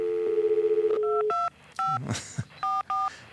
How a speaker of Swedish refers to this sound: Vi ringer till honom.